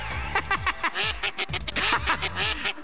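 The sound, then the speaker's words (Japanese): A rapid series of low, throaty croaks repeats in an uneven rhythm, fairly loud, with a raspy voice-like quality that could be a frog or a person imitating one, likened to an Ultraman monster's cry; a new sound effect used on a show. “このカエルの声もなカエルなのかなんだか近所の親父なのかわかんねえけどウルトラ怪獣みたいな鳴き声でおい夢に出てきそうだなこれ”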